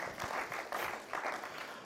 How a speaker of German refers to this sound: Komm, lass uns den drei Leute Applaus geben.